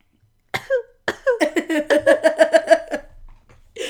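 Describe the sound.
A man puts on an exaggerated fake cough: a couple of forced coughs, then a quick, rhythmic string of voiced, hacking bursts, fairly loud, with no other speech.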